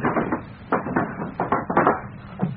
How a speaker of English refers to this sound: I'll make a little noise by slamming the desk drawers.